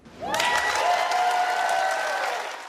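Dense applause from a large audience at an awards ceremony swells in quickly and holds at a steady, fairly loud level throughout, beginning to fade at the very end, with a faint sustained tone beneath it.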